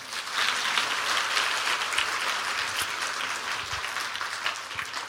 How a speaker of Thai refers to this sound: สรรเสริญพระเจ้า เราตบมือพระเจ้าดีไหมครับ